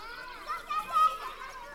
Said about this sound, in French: elle entend toujours les enfants qui jouent. Ils s'amusent avec la neige et ne semblent pas avoir remarqué le ballon.